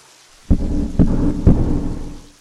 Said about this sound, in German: Draußen tobte ein furchtbares Unwetter, es blitzte und donnerte, der Regen vielen Strömen, es war wirklich ein ekelhaftes Wetter.